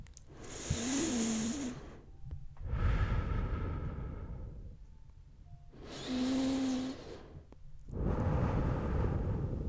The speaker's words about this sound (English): Sharkman embraces you, and you can hear him breathing in your ear.